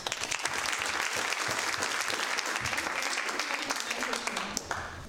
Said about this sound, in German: Aber zuerst mal einen Applaus an dich.